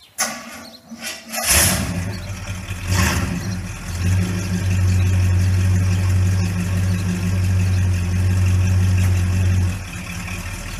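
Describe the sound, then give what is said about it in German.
An Oldsmobile car engine cranks and starts with a burst of noise, then settles into a steady, loud, low rumbling idle that continues until it briefly dips near the end. “Aber tatsächlich hast du, du hast das Oldsmobile gefunden.”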